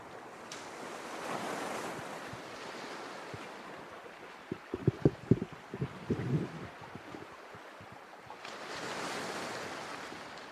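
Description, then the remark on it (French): Waves of the Gulf of Saint Lawrence wash onto the rocky shore at Forillon Park on 25 August 2022 in broad, rushing swells, with a cluster of sharp slaps and splashes near the middle as water breaks, wind hissing underneath. “Les roches dans l'eau, le sentier coupé, le golfe du Saint-Laurent, avant l'océan.”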